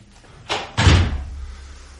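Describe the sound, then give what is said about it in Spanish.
A door is pulled shut with a short swish followed by a heavy slam that booms low and fades into a brief rumbling decay. “Cerró la puerta.”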